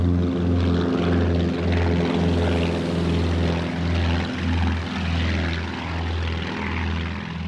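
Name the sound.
propeller plane engine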